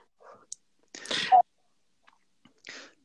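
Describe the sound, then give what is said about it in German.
A voice imitates radio static with a few short, breathy bursts of hiss and crackle, the longest in the middle, with brief pauses between them. “ich könnte Funk imitieren, so. Achtung, Achtung, DJ, DJ, hörst du mich? Bitte kommen. ja, dann zum Funkrausch.”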